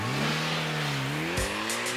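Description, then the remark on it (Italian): A car engine hums and revs steadily for two seconds as the car is driven away, its pitch rising slightly, with a few short hissing bursts near the end, like tires or gravel. No one speaks. “E Robin si prende e porta via quella macchina X.”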